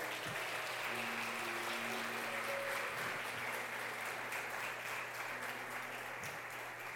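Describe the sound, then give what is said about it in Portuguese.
A crowd at a sermon claps loudly and continuously for Jesus, dense applause at steady volume for several seconds, with faint sustained tones humming beneath it and no clear voices. “Em nome de Jesus, você crê, aplauda bem forte a ele.”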